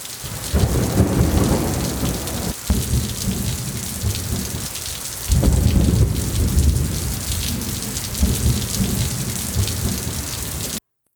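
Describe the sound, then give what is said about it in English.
A thunderstorm roars with heavy rain pouring steadily and deep, rolling thunder rumbling, swelling in waves across the whole stretch with no voices present. “They met in a thunderstorm.”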